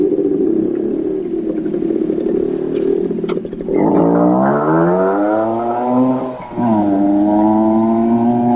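A motorcycle engine drones steadily as the bike is ridden around the area, then revs up sharply twice, its pitch climbing through each gear before dropping back, loud with no voices.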